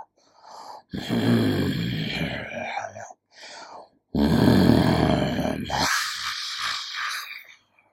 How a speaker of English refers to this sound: One day, as the goats were munching the grass in the field laz- lazily, yum, yum, yum, they heard a fierce growl of a harimau kumbang, a panther.